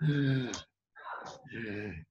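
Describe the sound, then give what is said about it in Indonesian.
A voice imitates strained, shallow breathing done with the chest muscles, as a person with asthma or a deep diver who feels their tank is empty breathes: three short, tight breaths with a brief pause after the first, fairly loud, with a voiced, effortful quality. “orang asma itu bukan nggak ada nggak ada udara, cuman pered apa bukan peredaran aliran udaranya nggak lancar jadi dia napas pakai otot dada jadi jadi kayak gitu nah orang-orang yang deep dive yang merasa tankinya kosong itu dia udah napas kayak gitu”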